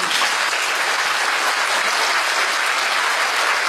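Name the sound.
warm audience applause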